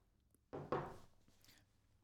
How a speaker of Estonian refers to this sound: selle peale kõigepealt siis joon äh, klaasi lonksu vett.